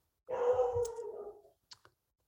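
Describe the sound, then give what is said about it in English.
A dog lets out a drawn-out, tonal cry lasting about a second, clear, followed by two quick faint clicks in otherwise quiet surroundings. “And now you can hear Fauner's dogs.”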